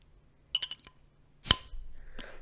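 A few small metallic clinks, then a sharp pop as a glass beer bottle is uncapped, followed by a soft fizzing hiss that lingers. No voices.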